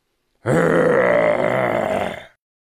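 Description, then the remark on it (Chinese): A giant bear roars once close behind people in a large forest by a river, a loud, deep, rough growl held steadily for about two seconds before cutting off, with no talking around it. “一直到河边才停下，忽然，身后很近的地方传来一阵咆哮。”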